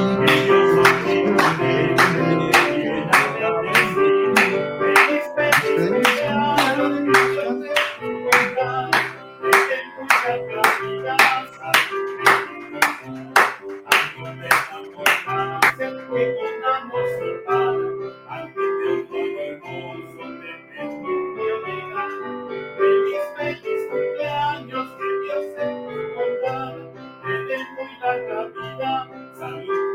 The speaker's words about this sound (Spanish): Vamos a cantarles un feliz, feliz cumpleaños a todos los cumpleañeros. Y con eso vamos a terminar.